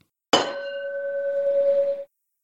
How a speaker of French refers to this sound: trinquons ensemble sur votre verre.